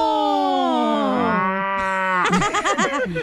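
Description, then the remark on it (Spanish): A person imitates a cow's moo with one long, loud, drawn-out low call that slides downward, followed by a quicker series of short, wavering mooing syllables. “¿Cómo le la vaca? Mumu, mumu, mumu,”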